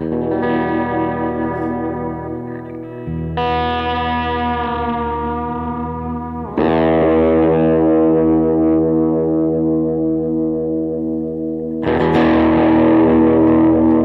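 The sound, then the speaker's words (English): An electric guitar plays through a delay effect, with four loud chords struck one after another, each ringing out long and smeared with echoing repeats, and no talking. “That's more delay to that.”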